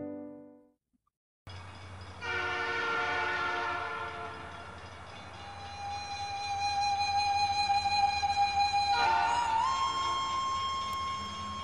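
A train at a station: a low steady rumble with bright, stacked horn-like tones swelling and fading, then a sustained high whine that steps up in pitch and holds, with no talking.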